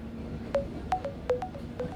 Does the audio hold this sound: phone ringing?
yes